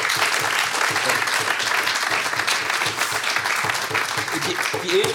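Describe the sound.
A crowd applauds steadily to welcome prominent guest Stucki Krigu to a show held at the end of a match day, a dense wash of many hands clapping at a constant loudness for the whole stretch, with a few cheers or voices mixed faintly underneath.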